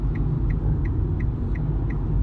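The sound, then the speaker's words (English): Inside a newer electric car creeping slowly uphill with its hazard lights on: a steady low road rumble fills the cabin, with a faint, regular ticking of the hazards roughly three times a second. No one speaks. “now all these years later, it's like we got the hazards on in a newer car, but it's electric, so we got to go slow up this hill.”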